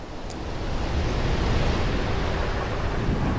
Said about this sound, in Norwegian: Saltvannet spruter over dekk. Dere hører torden buldre i det fjerne. Havet er forbannet denne dagen. Er forbannet.